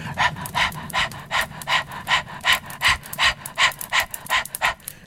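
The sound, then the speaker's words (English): Rapid, forceful fire-breath breathing exercise as done in yoga or Pilates: about a dozen quick, sharp breaths in steady rhythm, each a short airy burst, fairly loud with no talking over them. “And the fire breath is very much about activating the fire energy within the body.”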